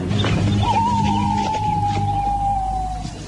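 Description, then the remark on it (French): A single long, hollow hoot imitating an owl in broad daylight, a signal call of the Chouans, held for over two seconds and sliding gently downward in pitch, rising clearly above a low rumbling background. “En plein jour, c'est pas la chouette. C'est quoi Les chouans.”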